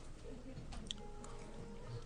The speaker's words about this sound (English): So was that cilantro? Uh huh. Just got a whoa. That was a crunch. Fresh herb in my mouth.